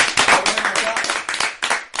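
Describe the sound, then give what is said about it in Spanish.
A stand-up comedy audience claps together in a dense, continuous burst of applause, the many overlapping hand claps forming a steady, bright crackle that holds fairly loud for about two seconds. “Bueno, así que bueno, como dice la regla del stand-up, se aplaude uno, aplaude todos.”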